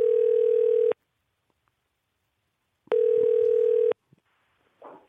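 Two steady, loud telephone tones, each about a second long, separated by a pause, like a phone ringing out on an outgoing call, followed by a faint brief noise at the end. The call is being placed to a listener.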